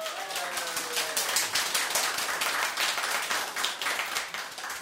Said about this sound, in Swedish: Det är så roligt att ha dig här så jag tycker vi ska ge dig en stor applåd till att börja med.